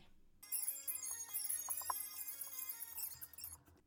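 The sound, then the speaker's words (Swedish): A few seconds of a competition entry song played back sped up, turning the music into a thin, squeaky, chipmunk-like chatter of high tones. It runs steadily at moderate volume with no talking. “Utan vi, eh, ni kommer få höra en uppspeedad variant här, några sekunder.”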